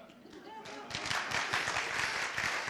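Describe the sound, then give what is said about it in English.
An audience breaks into applause after a brief quieter moment, the clapping swelling into a steady, dense patter that holds through the end, with some voices mixed into the crowd noise. “I wish you'd applauded for that.”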